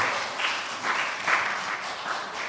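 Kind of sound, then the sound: crowd, audience applauding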